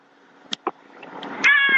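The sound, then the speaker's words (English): Birds call in the background, with a couple of short sharp chirps followed by a louder, sustained high warbling call near the end. No one speaks. “I can hear some birds in the background and everything.”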